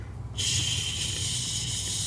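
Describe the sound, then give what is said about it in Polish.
A voice imitates liquid splashing onto wood with a sudden, steady, breathy hiss that starts after a brief quiet moment and holds evenly until the end, with no talking. “ciecz uderzała o drewno.”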